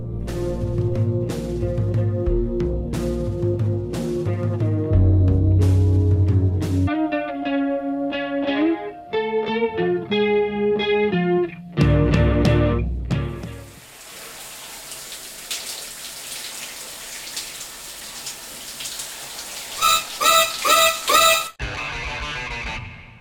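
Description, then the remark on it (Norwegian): A music track played on the show Kinosynrommet plays loud: shifting synth and guitar notes over bass with distorted, effect-heavy textures, then a long hissing wash like running water before a brief bright chord burst. No talking. “Uh, nå skal vi høre litt musikk.”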